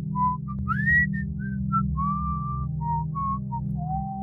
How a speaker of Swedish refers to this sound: Då klev han över mig och gick lugnt iväg och visslade glatt för sig själv.